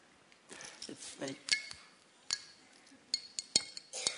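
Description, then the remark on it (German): Metal keys on a keyring jingle and clink against a glass wine bottle in a series of short, bright taps, some sharper than others, as someone tries to open the bottle with a key, with a faint voice murmuring underneath. “Und ich habe hier ähm, einen Schlüsselbund. Mit Schlüssel öffnet man ja.”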